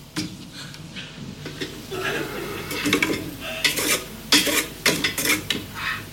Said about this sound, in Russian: Солдат берет кашу ложкой, пробует.